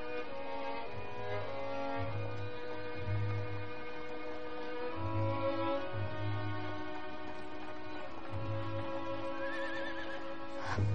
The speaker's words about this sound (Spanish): De noche, un carruaje se aproxima a Grandad's Place.